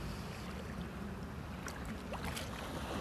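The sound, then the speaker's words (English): Steady outdoor water ambience at the Gulf shoreline in St. Pete, Florida, with continuous washing and lapping of waves under a soft wind rumble, plus a few faint high chirps. “Will you hear is the sounds of the shoreline of the Gulf in St. Pete, Florida.”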